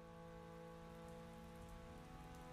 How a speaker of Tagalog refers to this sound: Iba ang hangin. Mas malamig. Nagumpisang pumatak ang ulan.